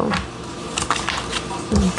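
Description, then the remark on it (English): Tarot cards being shuffled, a steady run of quick papery flicks and riffles with a few sharper bursts, continuing for the whole couple of seconds. “Okay, Recon reconciliation just popped out and I was shuffling.”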